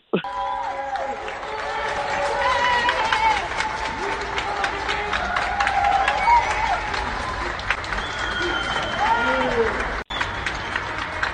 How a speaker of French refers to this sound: Bravo pour les soins. Les gens sortent littéralement sur leur balcon pour applaudir le personnel soignant. Je vous fais entendre ça,